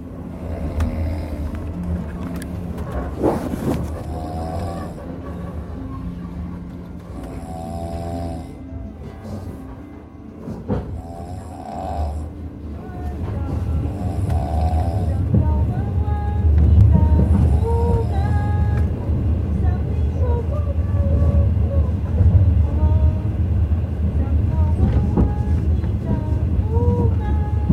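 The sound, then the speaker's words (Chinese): Steady low rumble of a moving train heard from inside a soft-sleeper compartment, with murmured voices and occasional clinks over the continuous rolling drone, which grows heavier midway. “这是我的软卧的车厢。”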